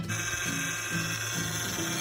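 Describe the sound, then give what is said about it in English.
A car's power steering whines and groans steadily, a strained mechanical drone with a faint low pulsing underneath, loud throughout with no voices. “Hey, buddy, if your car making a sound like this,”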